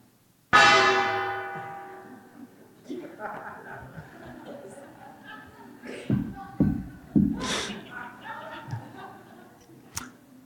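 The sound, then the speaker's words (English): A gong is struck once, loud, its shimmering metallic ring slowly fading over a few seconds as people chuckle and murmur in the background. “Wonder what a noisy gong sounds like.”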